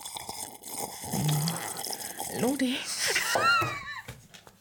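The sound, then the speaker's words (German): Wet, soft slurping and swallowing sounds of a man drinking, a few small liquid gulps in an irregular rhythm, with a voice speaking over them. “hat gerade was getrunken getrunken und jetzt schluckt er auch schön.”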